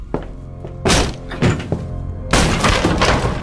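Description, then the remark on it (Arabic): A door is forced in with a series of heavy, booming thuds and cracking impacts, the last one longest as wood splinters and gives way, with no talking. “بركي بيكسر الباب لا احنا رح نكسره”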